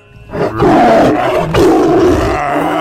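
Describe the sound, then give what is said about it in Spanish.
A voice imitates a tiger's roar, a loud, sustained growling roar with a brief dip midway before surging again, forceful, with no other talk. “Y al tigre se queda así bien contento y ah, ah, ah, se va, ¿no?”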